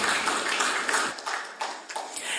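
A crowd applauds steadily, dense overlapping claps forming a continuous crackling wash at moderate volume that carries through the whole moment, with no voices over it.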